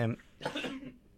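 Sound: cough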